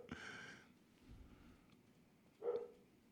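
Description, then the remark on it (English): A dog barks faintly in the background, with a longer harmonic yelp at the start and a second short bark a couple of seconds later. “Oh, now my dog's acting and, up.”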